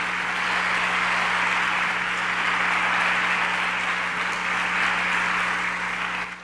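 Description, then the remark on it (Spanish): An audience claps steadily and loudly for the full stretch, a strong applause for the Lord during a Spanish-language sermon, a dense, even wash of many hands with no talking, and a low electrical hum running underneath, fading slightly at the very end. “No sé si le puedes dar un aplauso fuerte al Señor por eso, ¿sí?”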